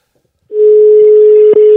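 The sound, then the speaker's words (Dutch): After a short silence, a telephone line tone starts as a call is placed: one loud, steady, mid-pitched note that holds unbroken to the end, apart from a tiny click-like dip just before it stops. “nou, ik, ik ga hem gewoon bellen. Bel hem maar gewoon.”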